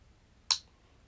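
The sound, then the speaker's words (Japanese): A single sharp metallic click of a pocket watch lid snapping shut, crisp, with a quick decay. The lid has a hole in its middle so the watch inside stays visible when closed. No talking. “この音がねカチッっていうこの聞こえるかなそう好きなんですよ懐中時計なんだけど真ん中あの蓋があって真ん中が穴が開いてるで蓋を閉めても中の時計が見えるんですよね”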